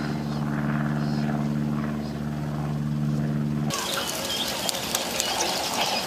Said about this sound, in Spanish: Vean qué cantidad de langostas. Eso es en África.